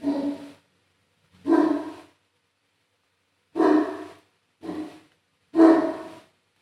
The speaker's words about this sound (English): Why my dog barking? I gotta take my dog out, not gonna lie.